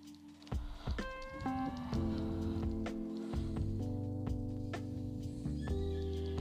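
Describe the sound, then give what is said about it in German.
A horse standing by a river whinnies with a tonal, wavering call, while steady hoof clops tick along beneath it at a regular pace, moderately loud, with no one speaking. “So, Pferdchen. Da hinten steht es am Fluss.”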